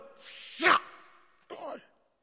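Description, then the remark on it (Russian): A breathy inhale builds into a sharp sneeze, followed a moment later by a second, shorter sneeze-like burst, with no talking. “Я чихаю, как от перца.”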